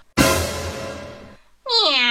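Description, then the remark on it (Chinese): A loud, rough, sustained sound lasts just over a second and fades, then after a brief pause a cat lets out a single bright, wavering meow that rises and bends in pitch. “快逃命啊！猫来啦！”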